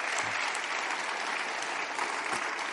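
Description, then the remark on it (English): A steady wash of audience applause, many hands clapping at once in a dense, continuous patter with no voices standing out, holding at an even level for a few seconds. “I think that's worth an applause.”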